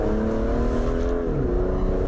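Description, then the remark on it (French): The V12 engine of an Aston Martin DBS Superleggera sports car rumbles steadily and powerfully, its deep harmonic drone shifting pitch slightly midway as the revs change, with no voices present. “Voici cette euh, DBS Superleggera de chez Aston Martin qui après la DB11 est donc là super sportive d'Aston Martin.”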